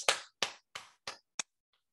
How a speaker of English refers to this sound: Oh boy, I can hear my thousands of students clapping all over the nation.